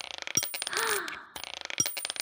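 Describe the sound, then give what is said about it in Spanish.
Gold coins from a sack clink and jingle in quick, bright metallic taps as two coins are handed over as payment, with a brief rustling swell in the middle before the clinking resumes. No one speaks. “Bueno, por la cancioncita te ganaste dos monedas.”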